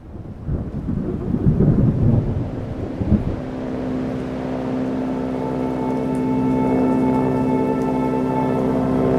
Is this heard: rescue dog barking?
no